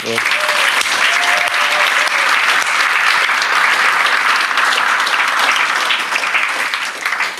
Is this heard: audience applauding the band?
yes